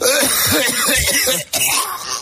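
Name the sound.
cough and throat clearing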